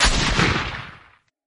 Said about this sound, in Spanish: Si es un coyote, esto lo callará, dijo el centinela mientras levantaba el arma. Kino estaba en mitad del salto cuando... Sonó el disparo.